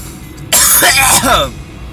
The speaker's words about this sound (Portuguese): Nossa, mas essa neblina tá forte mesmo, hein? Olha só, eu tô até tossindo.